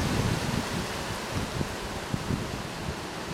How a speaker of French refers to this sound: Le vent il souffle de plus en plus fort. Je pense que vous l'entendez.